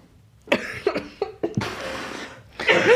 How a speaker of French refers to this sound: tu as toussé en live sur hmm Twitch